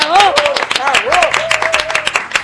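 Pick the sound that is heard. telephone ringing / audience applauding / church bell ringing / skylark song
audience applauding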